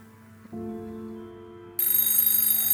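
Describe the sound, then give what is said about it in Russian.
A low steady hum plays, then a loud, bright telephone bell bursts in and rings continuously, piercing, until the end. No one speaks. “Звонит телефон.”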